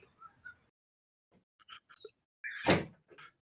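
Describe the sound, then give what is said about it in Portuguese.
A wardrobe door knocks and thuds as it refuses to shut: a few light taps, then one loud, heavy bang followed by softer rattling knocks. “A, a porta não tá fechando.”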